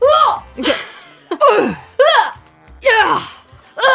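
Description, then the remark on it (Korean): A voice imitates a tennis player's grunts when striking the ball: about six short, loud, close shouts in a steady rhythm, each rising and then falling in pitch. “테니스 선수들도 일명 그런팅이라고 공을 때려칠 때마다 소리를 지르는데”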